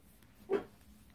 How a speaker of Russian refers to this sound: подойди сюда бегом, бессовестный пес.